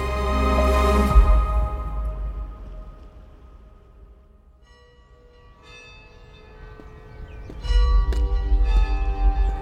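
Bells in the old bell tower on the campus of the Oregon Episcopal School ring out in several loud strikes, their tones overlapping and humming on in long decays, with a low steady rumble underneath and no talking.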